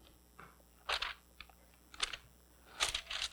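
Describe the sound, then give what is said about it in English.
Soft papery rustling comes in several short, crisp bursts as Bible pages are flipped to Psalm 19, quiet, with a faint hum of room noise between them and no one talking. “Pastors like to hear the pages of the Bibles turn, but that's okay if you brought your phone or whatever.”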